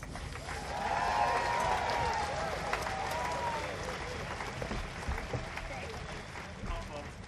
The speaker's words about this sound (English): Please give a warm welcome and clap to the recording of Behrouz Boochani.